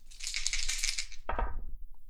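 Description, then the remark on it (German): Two six-sided dice (2d6) rattle briskly in a cup for about a second, then spill out onto a hard surface with a sharp clatter that quickly dies away, during a board game. Fairly loud, with no voices. “Oh, möchtest du für meinen Feind würfeln?”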